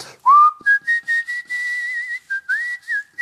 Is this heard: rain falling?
no